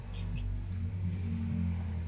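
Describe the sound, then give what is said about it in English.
A steady low engine rumble fills the background, a loud car passing by outside, with no one speaking. “Wow, that's yeah, a loud car.”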